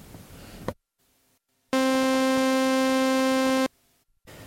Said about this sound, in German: Hm, ja, wir können ja zum Beispiel einen Sägezahn und ein Rechteck mischen. Ein Rechteck mischen, okay, und das klingt.